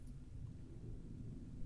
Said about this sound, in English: That's a plane. Oh, yeah. A plane flying over here? Plane flying. Well, yeah, they, they circle over the south side sometimes.